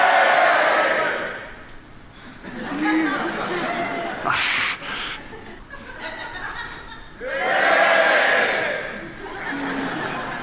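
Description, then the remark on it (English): A crowd of voices in an audience on one side shouts together on a count of three during a demonstration, in a loud, dense burst, then breaks into scattered laughter and chatter before another big swell of group noise rises near the end. “Okay, how about if everyone over there shouts?”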